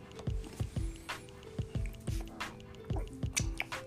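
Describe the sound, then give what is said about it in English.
Water drips steadily and unevenly from faulty pipes in a house's living room, each drop landing with a hollow plop, mixed with bubbling, gurgling sounds and no talking. “We have some pipes exploding.”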